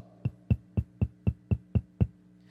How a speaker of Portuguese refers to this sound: Agora, qual que é o detalhe? Ouvir a voz e abrir a porta. Porque quando ele bate a porta, você ouve isso, ó.